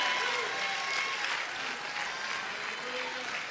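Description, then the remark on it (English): A large church group claps steadily and continuously in praise of God, with a dense wash of applause mixed with scattered cheers and raised voices, sustained at an even level throughout, plus faint sustained musical tones underneath. “Come on, praise God for that right now. I want to hear you praise God.”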